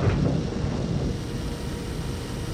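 A thunderstorm rumbles as a deep, continuous roar, heavy and steady throughout, with a slightly stronger swell at the start and no voices, around an airplane flying through the storm.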